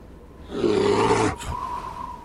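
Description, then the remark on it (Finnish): A single loud, rough bear roar on Svalbard bursts in and holds for about a second, then cuts off abruptly, leaving a quieter sustained tone behind it. No one speaks. “Ei helvetti, karhu. Onks toi nyt jo herännyt talviunilta?”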